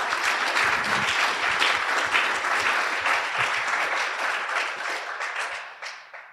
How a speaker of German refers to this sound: Willkommen. Applaus